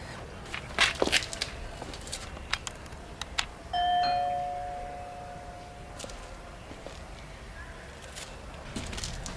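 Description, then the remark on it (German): A doorbell at a house chimes once, a clear two-tone ring that lingers briefly, amid scattered footsteps and faint rustling before and after. “Ah, soll ich klingeln?”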